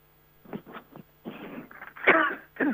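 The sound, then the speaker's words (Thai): A woman coughs several times in uneven bursts, with some throaty clearing mixed in, the last coughs coming louder and harsher, and no talking. She coughs because of a change in the weather. “อากาศมันเปลี่ยนนะคะ คุณผู้ฟัง ดิฉันก็เลยไอ”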